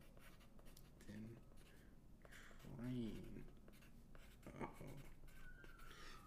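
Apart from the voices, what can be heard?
writing on paper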